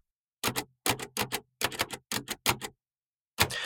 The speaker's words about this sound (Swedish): Hans Janstad kunde sitta vid sin blinda kollegas svårmanövrerade skrivmaskin och skriva in eh, lokalreportrarnas inringda material